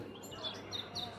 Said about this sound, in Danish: Og det, man kan høre lige nu, det er simpelthen byen Luca. Fuglene, der stod op og pipper lystigt, og så torvet, der langsomt gør klar til